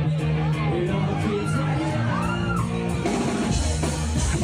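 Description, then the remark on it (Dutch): A packed pub crowd in London cheers and whoops loudly over a live band playing underneath, with shouts and excited voices rising out of a dense, continuous roar. “Eh, ja, het, kunnen, het café kon lukt natuurlijk ook niet op.”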